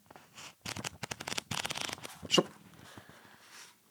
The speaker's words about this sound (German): Auch da muss ich ein Lesezeichen rausnehmen, sonst ist es unfair. Einmal blättern.